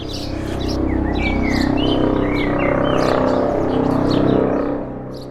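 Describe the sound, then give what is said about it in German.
Birds chirp and tweet repeatedly in short, high-pitched bursts on the Fischerinsel in Mitte, Berlin, as the sun comes out between rain clouds, over a steady low rumble of background noise, with no one talking. “Auf der Fischerinsel in Mitte zwitschern die Vögel.”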